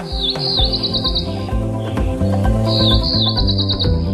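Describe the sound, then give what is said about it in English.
A cerulean warbler sings two quick, buzzy high-pitched phrases, each a run of rapid notes, over a steady low musical backdrop. “Cerulean, the cerulean warbler.”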